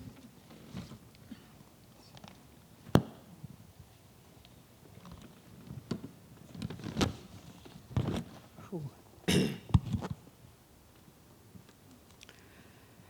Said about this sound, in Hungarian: Hú, köszönöm, nekem innom kell egy kortyvizet, gyerekek.